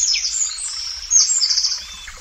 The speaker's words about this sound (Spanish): En el soto del Acebrón, los árboles forman una bóveda en la que todo suena hueco un ruiseñor cercano o un cuco a lo lejos.